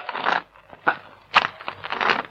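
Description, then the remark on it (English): Uneven, crunching footsteps of a person with a torch coming down the road scuff along gravel in a halting rhythm, one heavy step then a dragging one, growing slightly louder as they approach. No voices. “What makes you walk like that? Sounds like you've got a club foot.”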